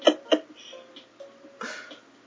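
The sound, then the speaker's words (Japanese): Two quick, sharp throat-clearing bursts, followed by a faint, low murmur of background sound and a soft rustle near the end. “おっと、咳払い。”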